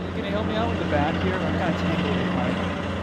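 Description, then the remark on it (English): A mining company's helicopter flies to a remote mountaintop about 10 miles outside Gates of the Arctic National Park, its steady, loud low engine and rotor drone constant throughout while a voice talks over it. “Because this spot is so remote, our only way to get here was to ride on the mining company's plane and helicopter.”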